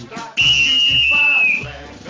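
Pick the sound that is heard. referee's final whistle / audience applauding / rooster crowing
referee's final whistle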